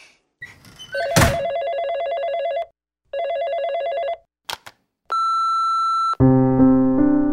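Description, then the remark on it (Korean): A telephone rings twice in loud, trilling bursts, followed by a couple of sharp clicks and a steady electronic beep, then a lower buzzing tone like an answering machine picking up. “휴대폰이 꺼져 있어서 전화로 남깁니다.”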